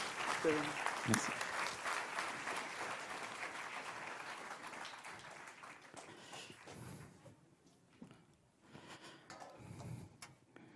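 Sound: audience applause welcoming speaker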